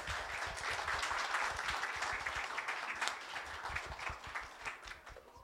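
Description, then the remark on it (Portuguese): A church audience applauds Jesus steadily for several seconds as a reverend is called up to preach, a dense wash of many hands clapping at an even, sustained loudness with no voices over it. “Queria que você aplaudisse Jesus nesse momento.”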